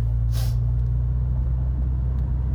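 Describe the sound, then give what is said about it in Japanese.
Steady low-pitched engine and road rumble fills a moving car's cabin, recorded while driving with a Tascam DR10L lavalier mic recorder, with a brief airy hiss near the start. No one speaks. “なんだろうな用途はいろいろ想定してるんですが一つはまあこのようにですね車の中移動中に収録ができればもっと時間が効率的に使えるかなと思ったんですよね”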